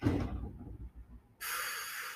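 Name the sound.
door opening or closing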